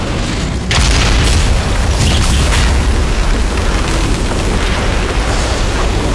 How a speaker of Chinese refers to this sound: 巨蛇因为惯性，头扎进旁边的建筑物内，扬起了巨大的尘埃。